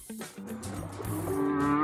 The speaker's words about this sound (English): We ask our whale friends to respond